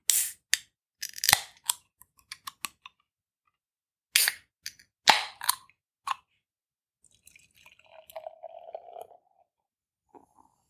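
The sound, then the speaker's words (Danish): A series of sharp clicks and metallic snaps as a High North beer from Kismar is opened, then after a pause a soft, steady gurgle of the beer being poured into a glass, with no talking. “skal vi ikke have noget øl i glasset? Vi sidder jo og bliver helt tørre i munden her.”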